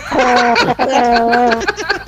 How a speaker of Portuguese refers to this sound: é, não, é a buzina do carro da droga.